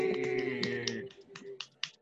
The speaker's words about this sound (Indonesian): Tepuk tangan untuk kehadirannya.